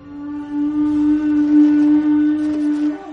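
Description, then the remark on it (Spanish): A loud, steady spoiler alarm sound effect: one continuous buzzing tone holding the same low-mid pitch for about three seconds, with a faint whirring texture and no voices. “Lo más importante es encender la alarma de spoilers.”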